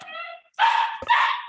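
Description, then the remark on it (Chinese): A dog gives a short high-pitched whine, then two loud, harsh barks in quick succession, the second following a brief pause, during a Bible study discussion. “哎呀，不好意思，狗狗叫了。”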